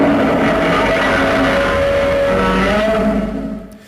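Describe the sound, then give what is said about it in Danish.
A loud, sustained roar of a movie monster, rough and grinding with a steady droning pitch, reworked with many sounds layered over the original roar, holding for several seconds and then fading out abruptly at the end. “Ja, men hvis du, jeg synes, hvis man lyttede godt efter, man kunne stadig godt høre det originale i slutningen af hans brøl.”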